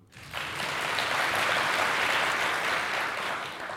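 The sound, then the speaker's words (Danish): A live audience of space enthusiasts at the University of Southern Denmark (Syddansk Universitet) in Odense bursts into sustained applause and cheering, a dense wash of clapping that starts abruptly and holds steady for several seconds before easing slightly. “Velkommen til Rumsnak, hvor vi dengang er taget til Odense og lige nu sidder foran et publikum med masser af rumglade mennesker her på Syddansk Universitet. Og lad os lige høre jer igen derude.”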